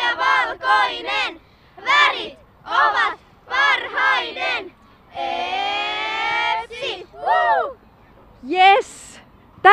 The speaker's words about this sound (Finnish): Tällaisen huudon huusi EPSin Espoon palloseuran tyttöjen 04 joukkue.